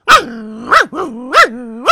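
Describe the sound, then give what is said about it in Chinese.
Stray dogs at a school barking as security guards hunt them with clubs: four or five loud, sharp barks in an uneven rhythm, joined by drawn-out, wavering whines and yelps between them. No voices are heard. “那些保安，流浪狗们先是汪汪的叫啊，”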